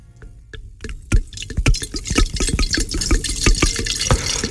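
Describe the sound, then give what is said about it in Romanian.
A bottle of champagne pops open, then liquid pours and fizzes with crackling bubbles and small clinks, fairly loud, with no one talking. “se desface șampania.”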